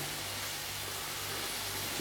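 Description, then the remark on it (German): Food sizzles gently at the left edge of a frying pan, a soft, steady crackling hiss that runs unbroken for the whole moment over a faint low hum, with no one speaking. “Links am Rand brutzelt es gerade ein bisschen.”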